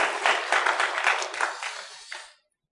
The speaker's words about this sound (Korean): 하나님께서 감사와 영광을 하나님께 우리 모두가 돌려드리기 위해서 한 박수 한번 치십시다. 하나님께 영광을.